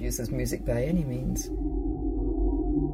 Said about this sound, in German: Die Schallplatte … hat so viele von uns zum ersten Mal dazu gebracht, sich Kommunikation von Tieren anzuhören